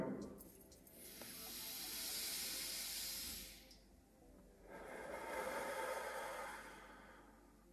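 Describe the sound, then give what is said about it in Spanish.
Two long, slow breaths drawn and released through the mouth during a guided relaxation breathing exercise, each lasting about three seconds with a soft, airy hiss, separated by a brief pause and with no talking. “porque estamos respirando.”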